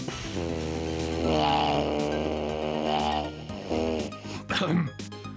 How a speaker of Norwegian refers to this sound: Hvis du deler rom eller seng med noen, og den personen synes snorkingen din er irriterende, kan du bedre situasjonen ved å ta fram didgeridooen og